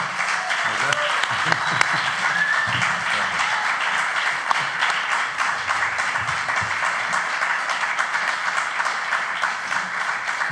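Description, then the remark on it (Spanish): Sustained applause from a live audience at the Teatro del Barrio welcoming actors Gonzalo de Castro and Tristán Ulloa, a dense steady wash of many hands clapping for about ten seconds, with faint voices and cheers mixed underneath. “Público lunero recibimos con un aplauso trememundo al gran Gonzalo de Castro y Tristán Ulloa.”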